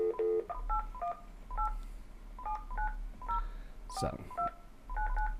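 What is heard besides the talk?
telephone keypad dialing tones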